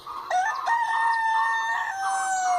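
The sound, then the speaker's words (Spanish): A rooster crows one long, drawn-out cock-a-doodle-doo, loud, with a steady high tone that falls slightly at the end. No voices are heard. “La gallina trajo.”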